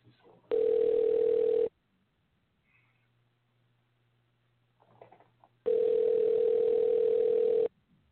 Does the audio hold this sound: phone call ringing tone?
yes